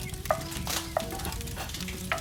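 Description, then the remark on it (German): Salt crackles and hisses as it heats in a hot paella pan, steady, with a few sharp scraping clicks from stirring. No one speaks. “Aber erstmal weiter, sonst brennt mir gleich noch das Salz an.”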